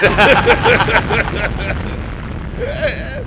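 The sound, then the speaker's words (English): A loud, rumbling explosion effect made by a voice, with a breathy, noisy blast that trails off into a brief rising vocal sweep near the end. “Another explosion.”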